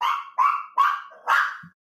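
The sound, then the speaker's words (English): A dog named Daisy barks four times in quick succession, sharp and loud, with brief gaps between each bark and no voices. “Can I help you, dog?”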